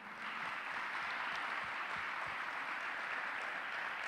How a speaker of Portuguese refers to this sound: Você aplaude Jesus comigo de novo?